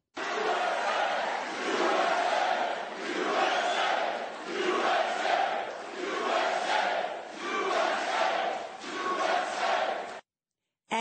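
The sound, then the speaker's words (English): A crowd of hundreds at Mar-a-Lago, Florida, chants in unison as President Trump walks in, a loud rhythmic call repeated about six times with short swells between, cheering voices blending into a steady roar before it cuts off abruptly. “And when he walked in to hundreds of cheering people, this is what they were chanting.”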